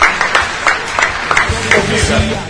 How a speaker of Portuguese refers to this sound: Uma salva de palmas pro Jacareí, campeão do Brasil.